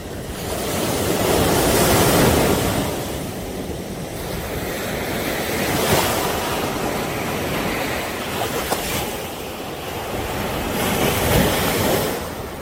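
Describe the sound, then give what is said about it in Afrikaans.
Rough water on the lake at Gala surging and breaking like sea surf in rainy weather, a continuous rushing wash with swells rising and falling every few seconds, mixed with gusty wind buffeting the microphone. No voices. “Toe ons aankom by Gala, toe lyk die meer soos die see met golwe.”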